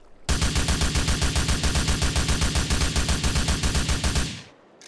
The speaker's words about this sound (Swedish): Ta GTA 4 som kom ja, efter San Andreas och lyssna på denna M4.